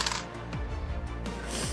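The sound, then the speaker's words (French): Dice, including a D4 and a D6, clatter and tumble across a tabletop in a quick series of clicks and rattles, fairly quiet, with no voices. “au moins, les 1, je les ai roulés là, mais tu sais.”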